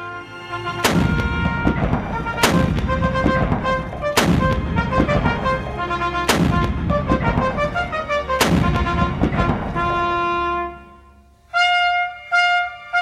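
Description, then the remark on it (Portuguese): Five loud cannon blasts boom out roughly every two seconds as a ceremonial salute at Francis Drake's burial at sea in 1596, with trumpets sounding through and between them, then a few brass notes ring on alone. “Seu corpo foi enterrado no mar, ao som de trombetas e canhões.”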